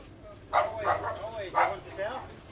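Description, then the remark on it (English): A dog barks several times in quick succession, three or four sharp, mid-pitched woofs, with a low background rumble and voices murmuring underneath. “two dogs here now.”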